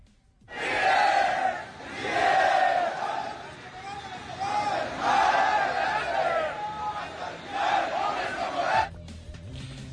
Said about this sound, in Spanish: Estos fueron los gritos que se escucharon durante varias horas en, las cercanías del aeropuerto, la Terminal 1 del aeropuerto de la Ciudad de México, en donde materialmente la mayoría, la mayoría de los viajeros tuvo problemas gravísimos,